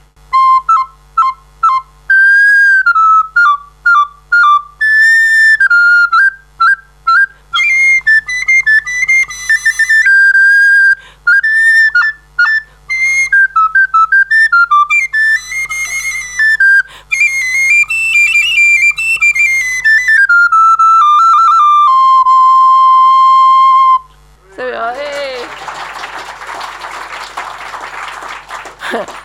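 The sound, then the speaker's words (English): A high, piping whistled tune meant for training an East India nightingale, full of quick runs, trills and short repeated notes. It ends on a long held tone, followed by a few seconds of rushing noise. “So this is a tune for the East India, night- East India nightingale.”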